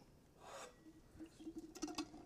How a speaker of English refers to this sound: Um, hold on, I got to take another sip.